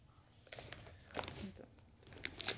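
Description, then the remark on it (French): Paper crinkles and tears in short, uneven bursts as a tape-sealed gift package wrapped by a bookseller is unwrapped, with a few sharper rips toward the end and no voices over it. “scotch. donc tu fais bien. C'est pas toi qui as fait les paquets Non, pas celui-là.”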